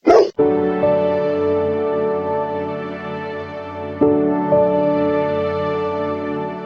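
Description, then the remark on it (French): Calm, slow instrumental music made specially for dogs, meant to calm them, with long sustained notes and a steady drone, gently shifting chords every few seconds, preceded by a brief rustling burst at the very start. “Ah dis donc, ah, c'est de la musique pour chiens ça Ah ouais.”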